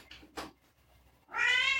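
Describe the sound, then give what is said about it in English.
A female cat meows loudly and insistently from behind a closed door, wanting to be let in: a short, sharp call, a pause, then a long, drawn-out, rising wail with strong harmonics. No one speaks. “Our cat is very upset right now because we closed the door on her.”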